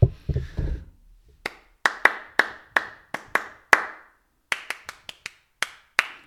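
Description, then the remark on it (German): A single person claps about fifteen sharp, crisp handclaps in an uneven rhythm with a brief pause midway, each clap loud and snappy with a quick ringing decay. A low rumble comes first. “Ich liebe einfach diesen Klatsch-Sound.”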